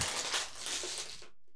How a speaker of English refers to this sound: Oh my god, do you have to crush the bottle? I don't know why I did that. Yeah, you sit here and complain about me not sitting still in the chair, and you're over there crunkling that's, bottles.